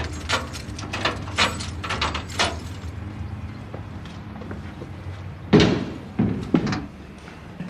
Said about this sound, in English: I just open the door now. If I can find the right key